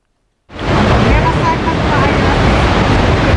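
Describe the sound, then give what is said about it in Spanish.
Outdoor ambience on a suspension bridge in the Desfiladero de los Gaitanes gorge, Málaga province, Spain: after a short silence, a loud, steady roar of wind and rushing water fills the air, broad and continuous with no clear individual sounds. “Hoy les mando la postal sonora desde un puente colgante.”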